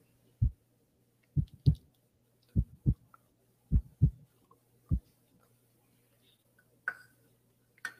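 A deep heartbeat thumps in steady lub-dub pairs, about five beats over several seconds against a low hum, then stops, followed by a faint brief rustle near the end.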